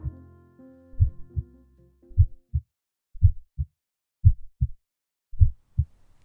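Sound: human heartbeat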